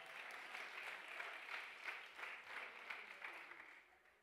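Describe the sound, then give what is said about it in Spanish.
Loud, sustained applause from an audience, a dense wash of many hands clapping with slight swells in intensity, lasting about four seconds without any speech. “Del otro aplauso fuerte.”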